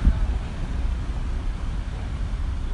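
Steady, dense roar of commuter traffic on the two-lane Sonnenallee in Berlin in the early morning, with deep engine rumble from passing buses blending into a continuous wash of sound. No voices.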